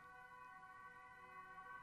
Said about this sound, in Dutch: Nu bijvoorbeeld komt er een ambulance voorbij. Ik weet niet of je het kan horen.